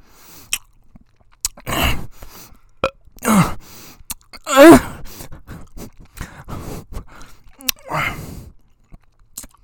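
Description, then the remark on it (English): Sticky chewing of Mike and Ike's chewy candy in irregular bursts, with soft smacking and a brief murmured vocal sound in the middle between quiet pauses. “And I want to eat them.”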